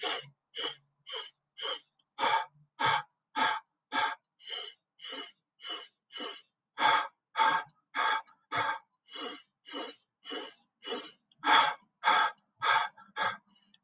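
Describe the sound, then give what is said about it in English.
A breathing exercise of quick, forceful inhales and exhales repeated in a steady rhythm, about two dozen breaths, loud, with no talking. “Once again, inhale, and then exhale.”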